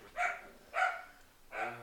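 A dog barks three times in a steady, evenly spaced rhythm, each bark short and sharp, with no one speaking.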